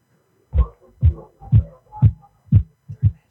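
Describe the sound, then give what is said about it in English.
A simple homemade music beat, made just now, plays quietly from a phone speaker: steady, evenly spaced bass thumps about twice a second, six or seven in a row, with faint higher tones between them. “I you, made this beat right now.”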